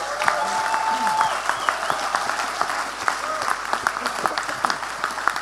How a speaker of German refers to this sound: All diesen Menschen, finde ich, sollten wir mal einen riesengroßen Applaus geben für ihren Dienst.